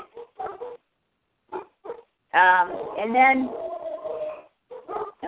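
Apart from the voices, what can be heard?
dogs barking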